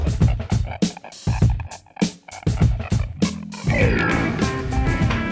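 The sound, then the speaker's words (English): A dog asking to go outside vocalizes insistently, a quick series of short whining barks followed by a longer, sustained whine, loud with no one talking. “Um, I hear a dog yeah, asking to go out.”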